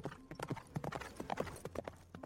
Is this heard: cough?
no